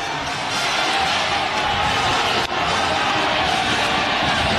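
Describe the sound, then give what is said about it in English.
A packed arena roars as basketball fans storm the court after Nebraska beats Wisconsin 80–72 in overtime: sustained cheering and shouting, a dense, loud wall of voices that barely dips, with faint sneaker squeaks and bounces buried in the din. “And another court storming. Storm that court.”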